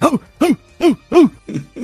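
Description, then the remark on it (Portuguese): A voice imitates a pinscher-type dog barking four times in a steady rhythm, each bark a short rising-falling yelp, followed by two lower, rougher snorting sounds. “Era um pincher, um variante de pincher, que ele latia quatro vezes e dava uma roncada.”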